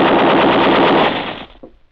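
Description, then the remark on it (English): A rapid Tommy gun burst, fired at a man running toward the road, rattles out loud and continuous for over a second, then cuts off, leaving a brief fading echo and a faint knock. “Willie cradled the Tommy gun in his arm as they ran through the doorway”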